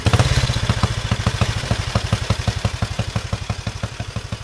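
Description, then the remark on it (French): A vintage 1934 motorcycle engine roars to life, then settles into a loud, steady idle of rapid, evenly spaced thumping beats with a rattly, clattering edge. No one speaks. “Allez, pour le plaisir, on va démarrer une Mania de bon de 1934.”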